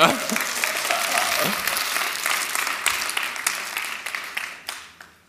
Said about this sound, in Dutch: Ja, geef me een applaus, die jongen.